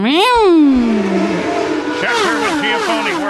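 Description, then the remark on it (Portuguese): A voice mimics a Formula 1 car zooming past, a loud, buzzing engine whine that climbs briefly then slides down in pitch, followed by a few wavering revving bursts. “Ou, ou quando um carro de Fórmula 1 passa e você ouvir.”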